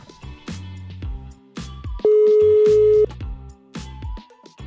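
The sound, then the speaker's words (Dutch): A single loud telephone ringing tone, a steady mid-pitched beep lasting about a second, as a call is placed to an economics reporter at nu.nl, sounds over rhythmic background music. “Fijn dat ik je even kan bellen.”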